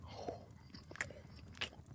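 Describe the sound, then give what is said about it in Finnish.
Someone chewing a sweet bun, with three soft, moist bite-and-chew bursts spaced irregularly over a low, steady background hum, moderately quiet and with no talking. “Minä syön nyt tämän pullan loppuun, kerta tuli aloitettua”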